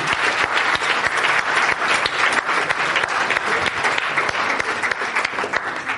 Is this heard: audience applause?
yes